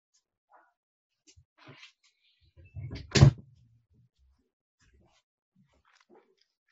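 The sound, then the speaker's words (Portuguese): A door is opened: a low rumbling shuffle leads into one sharp, loud clunk, with a few faint, scattered noises around it and no talking. “Mas quando você Entendi. abriu a porta e alguma coisa, eu ouvi, o um negócio parecia um miado, assim.”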